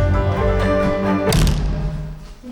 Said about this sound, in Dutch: En de deur dicht.